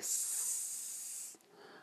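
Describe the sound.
A person hisses like a snake, one sustained breathy hiss lasting over a second before cutting off, with a faint breath after.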